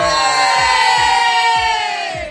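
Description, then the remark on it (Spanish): A full house of many guests cheering and shouting together, a loud, sustained roar of many voices that holds steady for a couple of seconds before easing slightly at the end. “Y como podrán escuchar en sus casas donde están, tenemos la casa llena el día de hoy.”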